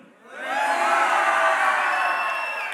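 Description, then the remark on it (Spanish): A group of children on the red team shout a good-morning greeting in Spanish together in one loud, drawn-out burst of voices that swells quickly and holds for a couple of seconds before easing slightly. “¿Por qué me gritan?”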